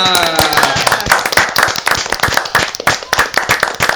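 A round of applause: many hands clapping in a fast, dense, uneven patter that stays loud and steady for the whole stretch, with a faint voice briefly audible at the start.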